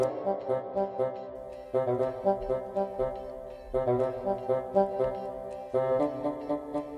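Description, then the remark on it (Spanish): A bassoon plays with an orchestra, its low reedy tone moving in bouncy, evenly pulsed notes over sustained accompaniment, the phrase repeating about every two seconds. No one speaks. “Ustedes se acuerdan que el fagot eh, la orquesta suena más o menos así.”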